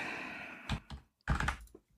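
Clattering keystrokes on the numpad of a computer keyboard come in two short bursts separated by a brief pause, with no voices.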